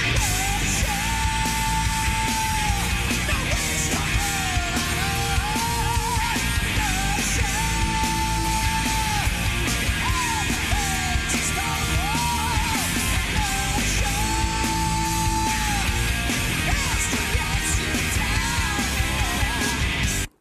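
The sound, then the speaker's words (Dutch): Loud, dense heavy metal with distorted guitars and pounding drums at a constant high level, while harsh shouted vocals wail over the wall of sound throughout. “ik wilde eigenlijk aan jou vragen, hou jij van deze muziek? Eh, nou, hou is een groot woord.”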